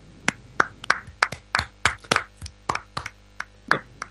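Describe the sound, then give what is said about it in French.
A brief round of applause from just a few people in a studio, about a dozen sharp hand claps in a slightly uneven rhythm, with no talking. “J'aimerais, j'aimerais, si vous me permettez, qu'on applaudisse Shinji parce qu'il l'aurait mérité.”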